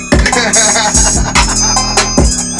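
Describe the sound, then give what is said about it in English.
A loud, punchy electronic beat with booming kick drums, a heavy sustained bassline and bright hi-hat bursts, driving along at an energetic pace with no voices over it. “Like for instance, if you came, if y'all came like, hey man, I need a beat for the thing. I need to be energetic.”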